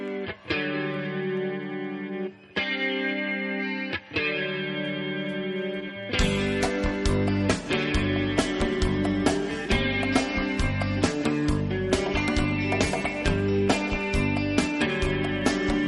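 A raw live rock recording: sustained distorted chords ring out for six seconds, then the full band crashes in with driving drums and loud, dense guitars.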